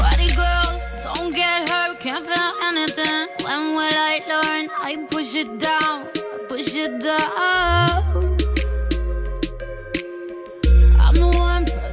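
A pop song plays on the radio, loud and full, with a sung vocal melody over synths, steady beats and deep bass swells that rise near the end.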